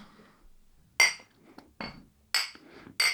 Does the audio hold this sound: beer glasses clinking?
yes